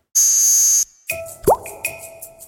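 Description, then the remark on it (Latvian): A cartoon-style sound effect from the animated series about the Lupatiņi of a red trouser button dropping: a short, bright electronic buzz, then a quick rising plop with a few light ringing tones after it. No one speaks. “Lupatiņiem nu, nokrita sarkana poga. Tā bija nu, bikšu poga.”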